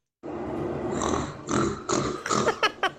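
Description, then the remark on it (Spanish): A person's voice imitates a pig as an animal-sound contest entry sent via WhatsApp, making a long rasping grunt and then a series of shorter snorting oinks, loud with no other talk. “un puerco.”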